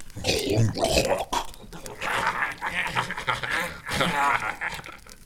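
Breathy snuffling and snorting from a pig-like creature slowly approaching a man and sniffing at him, with rapid panting bursts and low grunts in uneven rhythm, fairly loud throughout.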